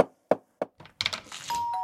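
doorbell ringing

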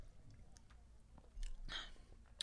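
sipping wine

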